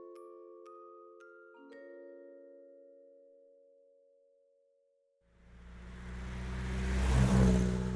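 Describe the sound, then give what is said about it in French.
A few sustained, chime-like musical notes ring out and fade to silence, then an old car engine rumbles to life and revs, growing louder as it pulls away, as a young couple sets off in the old car across the northeastern United States in 1945. “le jeune couple Warren achète une vieille voiture et part sillonner le nord-est des États-Unis”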